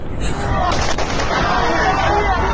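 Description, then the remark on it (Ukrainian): Gunfire cracks out in a couple of sharp bursts near the start, set against a dense, noisy background with indistinct voices murmuring throughout. “На вас стріляють”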